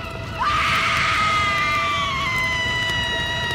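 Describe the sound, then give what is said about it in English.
A woman on board a burning ship lets out a single long, high-pitched scream that rises sharply and then holds, slowly fading over a few seconds against a low background rumble. “As the Palatine burned, her screams could be heard from shore.”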